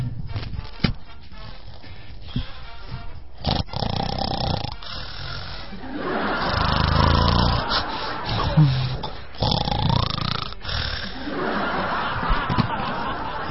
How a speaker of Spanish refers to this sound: Ahí está. Ahí está roncando. Les voy a poner el micrófono para que escuchen cómo ronca